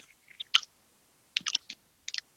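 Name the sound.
chewing potato chips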